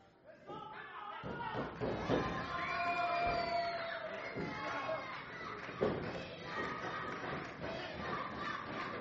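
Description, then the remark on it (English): A wrestling crowd at a tag-team match cheers and shouts continuously, firing up the wrestlers, a dense roar of many voices with scattered yells and a couple of dull thuds, fairly loud and steady throughout. “Crowd is firing them up.”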